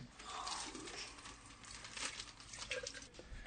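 A crisp packet is handled and crinkled, giving a run of dry, crackly rustles that flicker and rise in bursts, fairly quiet and with no voices.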